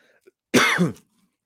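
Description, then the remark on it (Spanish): A single rough cough bursts out, lasting about half a second with a harsh, throaty quality, then fades into quiet. “La tos está incluida en patrocinio.”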